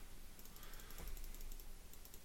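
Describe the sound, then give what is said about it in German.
Soft, rapid clicking of a computer keyboard, a steady patter of light taps with one slightly louder knock partway through, fairly quiet with no voices. “Also ich muss Entriegle. da klick, klick, klick machen.”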